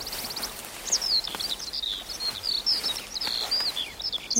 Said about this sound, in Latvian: Mikrofons bija pie strautiņa. Bērni, aktieri, visi mežā. Tas bija kolosāli, putniņi dabīgi, viss